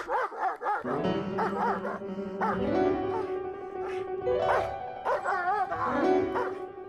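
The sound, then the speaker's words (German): A small dog yaps and whines in a run of high, excited barks, fairly loud, with a steady tonal hum or music droning underneath. “Als Bimperl im Hundehimmel war und Mozart bereits in Wien lebte, legte er sich wieder einen kleinen Hund zu, Gaukerl, der auch den Spitznamen Schamanuzki trug.”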